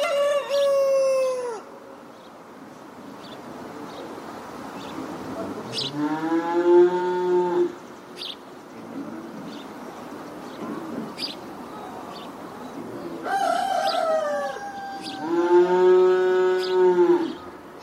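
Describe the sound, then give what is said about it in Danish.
Cattle low in long, drawn-out moos, two clear calls standing out near the middle and end, with a rooster crowing and chickens clucking around them in a busy farmyard. “Og, øh, og vi ved, at øh, på den bondegård, der var der jo køer og grise og heste og får og hunde og katte og kaniner og geder og kalkuner og ænder og hunde.”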